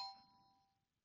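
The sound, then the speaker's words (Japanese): A bright quiz-show correct-answer chime: a sharp metallic ding with sustained ringing tones that fade out over about a second, heard alone and fairly quiet. “クイズ正解。”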